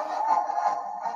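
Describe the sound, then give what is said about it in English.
A thin, tinny electronic melody plays steadily from a team ticker sign for about a second, with a bright, buzzy tone at a constant moderate volume and no voices. “Okay, so the team ticker sign plays music apparently out of nowhere.”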